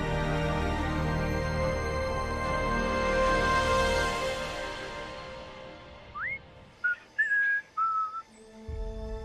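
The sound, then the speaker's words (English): A whistled snippet of Pop Goes the Weasel: a few short rising and held notes, following a loud, dense tonal swell that fades out over the first few seconds. “Riker would be able to to interpret that musical piece.”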